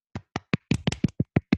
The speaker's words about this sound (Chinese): 好啦，这就是我今天的分享， 好，全体起立鼓掌。